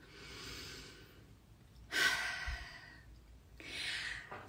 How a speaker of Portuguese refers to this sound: Então o que eu vou pedir para vocês agora é que a gente respire fundo.